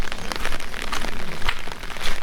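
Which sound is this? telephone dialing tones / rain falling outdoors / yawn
rain falling outdoors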